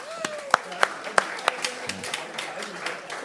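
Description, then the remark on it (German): A small audience gives a few scattered, sharp claps for volunteers, starting fairly loud and quickly thinning out into faint, irregular patters over a soft background murmur. “Okay, großer Applaus für unsere Freiwilligen.”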